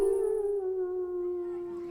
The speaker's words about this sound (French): On est comme paralysé. On écoute en silence. Les hurlements sont de plus en plus nombreux. C'est sûr, ce sont des loups